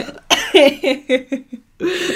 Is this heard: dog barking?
no